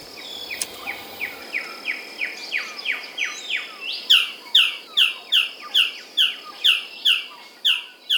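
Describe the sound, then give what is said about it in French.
A male blue bird-of-paradise calls while seeking a mate, in a fast, steady series of sharp, downward-sliding notes. The notes grow louder and harsher halfway through, over a constant hiss of insects. “paradisier bleu mâle en quête d'une compagne.”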